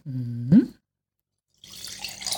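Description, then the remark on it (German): Red wine, a French cuvée from the Languedoc blending Cabernet Sauvignon, Grenache and Syrah, is poured into a glass: a short gurgling pour with a tone that rises as it fills, then a pause and a softer, splashy trickle of liquid. “Und ich gieße mal ein bisschen ein.”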